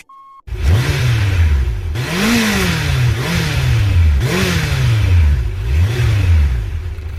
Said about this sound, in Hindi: ये आवाज सुनकर तो आप समझ ही गए होंगे कि ये कहाँ से आई है बाइक से ऑब्वियसली बट बाइक में ऐसा क्या है जो नहीं होगा तो आवाज नहीं आएगी क्या एग्जॉस्ट हाँ वो तो है